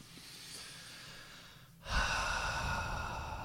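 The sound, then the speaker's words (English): A deep breath: a soft inhale trails off, then after a brief pause a louder, broad, breathy exhale rushes out and sustains to the end. No one speaks. “And breathe.”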